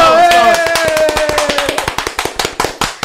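A few people clap in a quick, loud burst that starts dense and thins into separate sharp claps toward the end, with a brief voice-like tone at the start.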